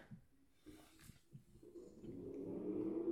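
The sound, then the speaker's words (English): A motorcycle engine drones in, its low rumble and rising pitch swelling steadily louder toward the end as it approaches and goes by along the street. “some kind of fucking motorcycle going on, going by on the street.”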